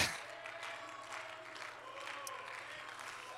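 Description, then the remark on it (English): An audience at a church service claps and shouts together, a steady wash of applause with scattered voices rising above it, sustained and fairly even in loudness throughout. “Go ahead and clap a little bit more.”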